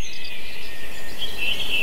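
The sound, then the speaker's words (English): Birds singing outdoors on a golf course on a beautiful day, a steady wash of high chirping with a few brighter trills toward the end, moderately loud over a faint background hiss and no voices. “Uh, nothing like playing golf on a beautiful day. The birds are singing.”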